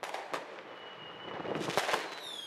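firecrackers going off

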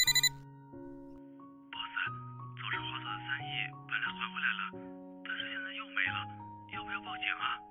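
phone ringing

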